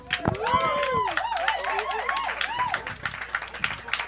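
An audience applauds steadily, dense clapping filling the whole stretch, with whoops and warbling cheers rising and falling over it before the clapping thins slightly toward the end.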